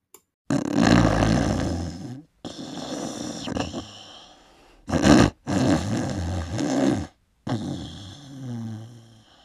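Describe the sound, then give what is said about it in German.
A voice imitates the loud, growling snores of a wolf sleeping under a tree in a meadow: several long, rumbling, rasping breaths in an uneven rhythm, forceful, with short silent gaps between them. “Als sie auf die Wiese kam, lag der Wolf immer noch unter dem Baum und schnarchte, dass die Äste zitterten.”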